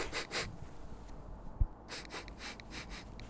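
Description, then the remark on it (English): A person sniffs a hat, smelling it for diesel fuel: a series of short, breathy sniffs, several quick inhalations in bursts with a brief pause midway, and a soft thump; no talking. “What are you doing? Smelling, sniffing.”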